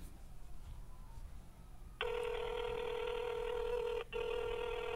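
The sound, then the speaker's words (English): A phone line rings while waiting for someone to pick up: a steady electronic ringing tone starts after a low rumble, cuts out briefly, then resumes, fairly loud. “let me see if he will answer lay phone.”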